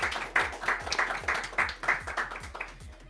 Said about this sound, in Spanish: Un aplauso para Winder de parte de todos.